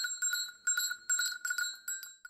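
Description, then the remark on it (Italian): A small golden bell on a red cord jingles in several quick bursts of bright, tinkling rings, clear, with no voices over it. “L'asinello guardò dentro al sacco e trovò un bellissimo campanello d'oro con un laccetto rosso.”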